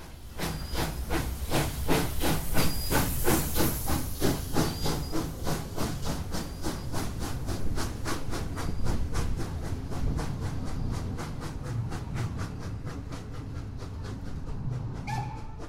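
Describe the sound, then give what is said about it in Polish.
A steam locomotive pulling a weekend passenger train on the Poznań to Wolsztyn line in Poland, heading to Stęszew, chuffs along in rapid, steady rhythmic bursts over a constant hiss of steam and a low rolling rumble, loud, with no voices. “W weekendy linią z Poznania do Wolsztyna wciąż jeszcze jeżdżą pociągi prowadzone parowozami. I z takiego właśnie pociągu skorzystałem ja właśnie w drodze do Stęszewa.”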